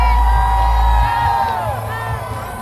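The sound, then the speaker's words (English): A packed crowd at a watch party in Northwest Atlanta cheers loudly at the introduction of Andre Dickens, the 61st mayor of Atlanta, with overlapping whoops, yells and shouts forming a steady roar that holds throughout, a heavy low rumble dominating the first second. “And that sound you hear is the introduction of the 61st mayor of Atlanta, Andre Dickens, at a packed watch party in Northwest Atlanta.”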